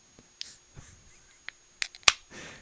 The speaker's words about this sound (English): He couldn't even pop the can.